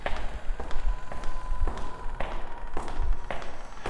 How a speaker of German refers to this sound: Es bläst ein leichter unterirdischer Wind, und leise hallt auch das Echo der Schritte derjenigen Gestalten wieder, die hier unten leben.